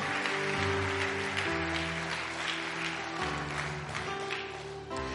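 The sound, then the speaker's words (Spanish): An audience at a church service applauds the Lord loudly and steadily for several seconds, dense clapping layered over sustained keyboard chords that shift every second or two. “Hay alguien aquí que le puede dar un fuerte, pero fuerte aplauso al Señor.”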